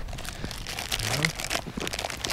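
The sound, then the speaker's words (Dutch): A plastic bag crinkles and rustles in irregular, scratchy bursts for a couple of seconds as a find, a Dutch railways (Nederlandse Spoorwegen) ashtray from a waste pit, is unwrapped from plastic after being taken out of a large bag, with a brief voice murmuring underneath. “Mooi in plastic. Ja, ja, ik heb hem even uit eh, de grote zak gehaald.”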